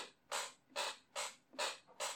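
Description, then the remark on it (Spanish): A chair creaks five times in a steady rhythm, each creak a short, scratchy squeak of similar length, fairly quiet, with nothing else audible between them. “Si hago esto, ¿se escucha la silla?”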